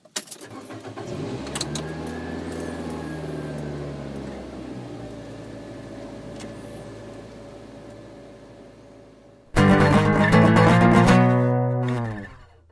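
Car engine humming steadily from inside the cabin of a Cube Cubic setting off from Higashi-Totsuka for Umi no Koen at 9:30 am on 23 April, low rumble with a rising whine, then a sudden louder burst of engine and road noise near the end before fading.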